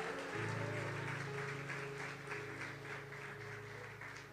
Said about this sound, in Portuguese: Aplauda Jesus pela vida dele.